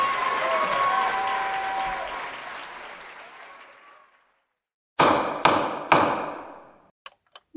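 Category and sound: impact, gavel banging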